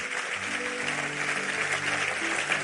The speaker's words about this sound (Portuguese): Pode aplaudir ele aí, irmão?